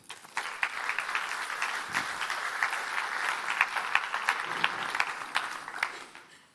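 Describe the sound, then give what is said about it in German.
Sustained applause from an audience at a church service, a dense crackle of many clapping hands holding steady at moderate loudness for several seconds before tapering off, with no voices heard. “Besten Dank, einen herzlichen Applaus.”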